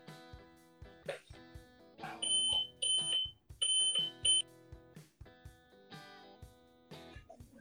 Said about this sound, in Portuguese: Pessoal. Desculpem, é, é o computador que estava ligado e começou a apitar.